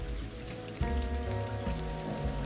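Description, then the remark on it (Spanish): Heavy rain pours steadily in Innsmouth in a dense, continuous hiss, with a deep low drone swelling in beneath it partway through. No one speaks. “Y cuando salen, ya ven que la lluvia Llama y no un poco, pero por otra parte están viendo esta ciudad, Innsmouth.”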